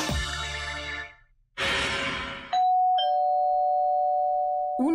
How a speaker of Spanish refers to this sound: El timbre de la puerta de una casa.